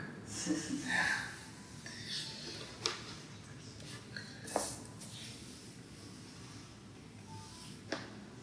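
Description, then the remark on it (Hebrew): A deep, airy inhale in the first second, then near silence as the breath is held, broken only by a few faint clicks and soft shuffles. “אז זה סוג אחד של עצירת נשימה, אחרי שאיפה.”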